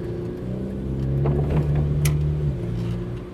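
A car engine hums steadily outside, its low drone swelling a little as it passes before easing off again, with no voices present.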